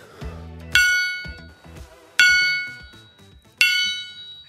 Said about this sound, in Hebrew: אה, זה גונג, ספציפית זה הגונג שעובדי טבולה. קיבלו בעקבות ההנפקה שלהם בשבוע שעבר בנסדק